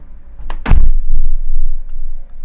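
A balcony door slams shut as a test of very low bass frequencies, with a heavy, booming low thud, preceded by a brief latch click and followed by a softer rattle, with no one talking.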